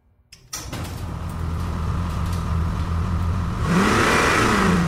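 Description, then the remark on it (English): A car engine catches after a brief silence and settles into a steady low rumble, then revs up loudly near the end with a rising roar. No one speaks. “Why are we taking one of Daddy's cars?”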